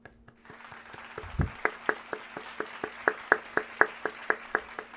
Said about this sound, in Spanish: Un aplauso para Yoshua.